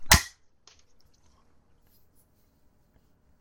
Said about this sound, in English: Three, two, one, clap.